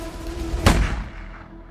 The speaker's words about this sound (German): Ein Schuss aus der Waffe des Polizisten Karl-Heinz Kuras trifft den Studenten in den Kopf